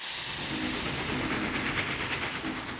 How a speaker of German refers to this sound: Die erste Eisenbahn fährt von Nürnberg nach Fürth. Eine kurze Strecke, aber immerhin.